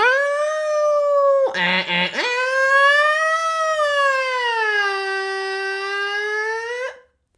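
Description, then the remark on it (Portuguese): A voice imitates an ambulance siren with a long, sustained wailing tone that rises and falls, broken briefly by a rough warbling burst, loud, with no other talking. “Foi uma boa imitação de uma ambulância ou não?”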